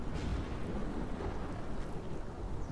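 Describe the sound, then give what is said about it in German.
A steady, roaring storm with a deep rumble of thunder beneath a constant wash of rain and wind, loud and unbroken throughout, with no voices. “Da vernahm er durch das Getöse des Sturms eine Glocke.”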